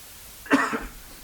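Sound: cough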